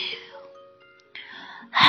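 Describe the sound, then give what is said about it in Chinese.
A voice imitates a little bear's yawn while reading a bear picture book: a breathy, airy exhale that tapers into a soft, drawn-out hum, followed by more breathy sound and a louder gust of breath at the end. “哎呦，小熊打了一个哈欠，哎，”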